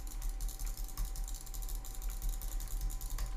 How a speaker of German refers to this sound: Boah, Butterfly-Klicken ist so nützlich. Du bist so schneller fertig mit all dem Zeug. Halt beim Blocks placen, du kannst so viel schneller Blocks placen. Das ist mega nützlich.